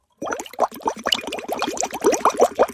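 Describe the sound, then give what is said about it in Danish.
Water glugs from a plastic bottle into a glass, a quick run of bubbly pours with a rising, filling tone, lasting a few seconds with no talking. “Det er fordi, du har din plastikflaske, du skal over i glas.”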